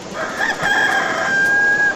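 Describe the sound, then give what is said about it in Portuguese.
A rooster crows in one long, strained call that rises and then holds a high, bright tone for over a second, loud and alone with no talking. “À noite, quando eu ia dormir, era uma tristeza, que ele não parava quieto, ficava cantando, ou ficava pulando em cima de mim na cama.”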